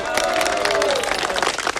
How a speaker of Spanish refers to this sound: ¡Eso, compañero, carajo! ¡Aplaudan, carajo!